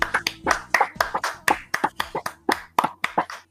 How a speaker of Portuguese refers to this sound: Palmas.